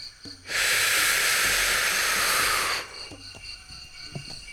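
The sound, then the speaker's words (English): A big, deep inhale during a breathing exercise: one long, loud, airy rush of breath lasting a couple of seconds, steady and hissy, then cutting off into near silence with faint soft sounds after. “You just take a big inhale”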